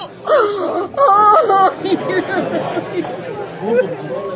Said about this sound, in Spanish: Lady Capuleto, al ver a su sobrino muerto, se derrumbó en llanto mezclado con rabia.